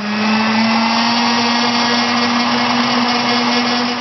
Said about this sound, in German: Der Herdöpfel zuerst roh schälen, nachher in kleine Würfel schneiden, nachher den Kürbis gerade dazugeben. Und dann tut man das noch zusammen noch Mixer mit dem Stabmixer.